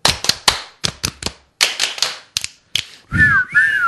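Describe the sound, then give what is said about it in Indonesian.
A quick rhythmic run of sharp thigh slaps and finger snaps, pausing briefly between groups, followed by a short, clear whistled phrase near the end, performed by school students along with a song. “Kalau kau suka hati, tepuk paha. Kalau kau suka hati, petik jari. Kalau kau suka hati, siul-siul.”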